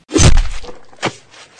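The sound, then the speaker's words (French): A loud impact with a sharp crack and a heavy low thud, followed by a brief crunching tail and a second, smaller snap about a second later, as a man in a car's back seat decapitates a woman with an axe. “il décapite la pauvre femme avec sa hache.”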